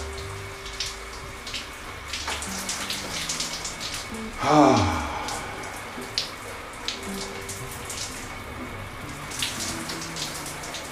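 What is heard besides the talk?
shower water running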